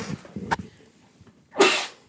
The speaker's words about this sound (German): Niff. Ich musste kurz niesen.